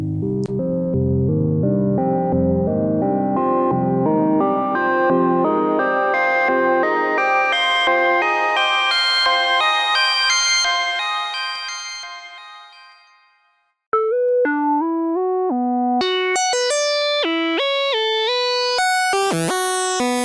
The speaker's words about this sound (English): Let's take a quick listen. There's a very good demo here, just showing off the Opal synthesizer going through a few presets here.